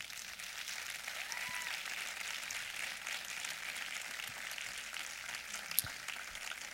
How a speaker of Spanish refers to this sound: Si estás ahí, apláudele fuerte a Jesús.